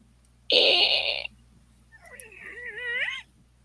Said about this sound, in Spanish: Calimán empieza a desclavar una de las tablas. Ah, ¡Maldición! Los clavos se resisten a salir sin ruido.